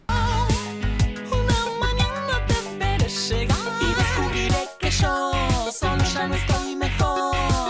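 An Argentine electropop song plays loud, with a steady pounding bass beat, bright synth layers and a sung melody line. There is a brief dip near the middle before the full mix returns.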